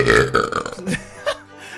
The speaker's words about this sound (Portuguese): Arroto sônico.